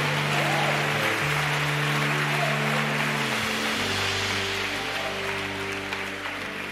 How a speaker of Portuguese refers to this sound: Aplauda mais uma vez o nome dEle, aplauda mais uma vez o nome dEle.